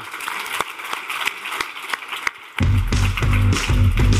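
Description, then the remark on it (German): An audience applauds the DJ's music with a steady, rhythmic pulse for a couple of seconds before loud music with a heavy bass beat kicks in over the applause. “Mal Applaus hier zu ja.”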